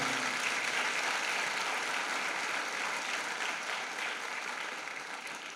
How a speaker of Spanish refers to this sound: Pero la buena noticia en esta mañana es que Dios está con nosotros para vencer todo plan y todo ataque de Satanás y le damos un fuerte aplauso a ese Dios por eso.